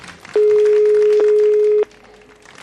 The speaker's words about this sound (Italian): Il suono che sentite è quello del telefono.